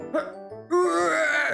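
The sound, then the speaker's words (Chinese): A voice imitating a big owl in a children's story coughing and retching to spit a little white mouse out of its mouth: a short throaty cough, a brief pause, then a loud, strained, drawn-out retching groan that holds steady to the end. “大猫头鹰突然一阵咳嗽、呕吐，小白鼠就从大猫头鹰的嘴巴里面吐了出来。”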